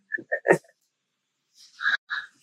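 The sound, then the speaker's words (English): A dog jumping up behind the speaker gives three quick, excited yips or whines, then a couple more after a short pause, with scrabbling movement and no one talking. “I got a bloody dog jumping up behind me.”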